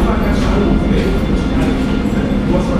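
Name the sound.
train passing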